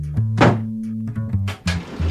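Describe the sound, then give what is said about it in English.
The door on the right at the end of a long second-floor hallway opens with a few sharp clunks and rattles from the latch and handle, heard over a steady low electrical hum. “Open the door on the right.”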